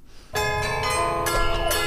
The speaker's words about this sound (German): ist das ähm, Glockenspiel in München und ähm, daher lässt sich das relativ leicht herleiten.